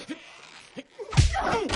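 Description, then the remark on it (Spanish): A single heavy punch in a fight between a man and a woman lands with a dull, low thud, followed by a burst of rough, noisy scuffling. A few short breathy gasps come just before the blow. “Le da un puñetazo y coge un abrecartas.”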